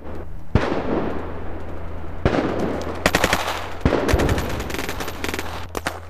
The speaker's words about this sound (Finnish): Yhden illan aikana kuului Donetskissa 100 räjähdystä ja 250 raskaiden automaattiaseiden sarjaa sekä kevyempien aseiden laukauksia. Samana päivänä valoisan aikaan näitä konetuliaseiden sarjoja oli kuultavissa lähes 500.